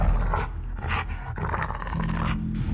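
A dog, Cliff, growls low and steadily, with rough, breathy panting mixed in, sounding agitated and eager throughout the short stretch as it wants to go straight at some men.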